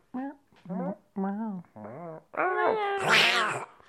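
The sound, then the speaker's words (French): A person imitates a cat meowing in a run of five or six drawn-out meows, each rising and falling, building to a louder, strained final yowl. “De droite ou de gauche, les chats.”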